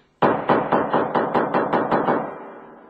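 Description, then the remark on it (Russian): Rapid, heavy pounding on a door, about nine loud blows in quick, even succession, like someone trying to break it in, with a booming tail lingering after the last hit. “Если станут ломать двери, придется стрелять.”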